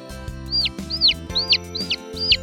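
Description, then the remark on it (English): Ducklings that have just hatched from eggs peeping: five short, high-pitched rising-then-falling peeps at an even pace, over a steady low musical backing. “The pretty little ducklings hatch from the eggs. The ducklings say,”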